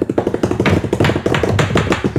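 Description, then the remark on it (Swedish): A rapid, steady drumroll tapped out by hand, dense rhythmic taps on a surface that run continuously for about two seconds at a fairly loud level, with no speech over them. “Du har ju, nu är det trumvirvel.”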